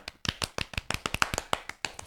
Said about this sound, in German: Ich, ich auch, klatsche für euch alle.